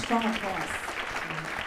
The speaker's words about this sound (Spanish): Démosle ese fuerte aplauso.